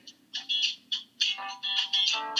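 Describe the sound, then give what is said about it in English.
Thin, tinny music plays from a small phone speaker, with bright melodic bursts and almost no bass, fairly loud and steady with no voices over it. “it sounds so bad coming through the phone.”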